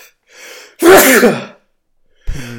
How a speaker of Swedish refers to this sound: Eh, jag måste nysa va?